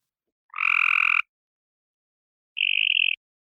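A mockingbird in North Carolina imitates tree frog calls, the first a Cope's gray tree frog: two short, nasal, buzzy notes separated by a pause of over a second, the second thinner and higher, clear with no talking.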